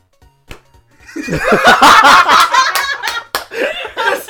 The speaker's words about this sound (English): This fucking guy. I slap my belly. He got the eye contact down too. He's just eye contact and just like smack the belly.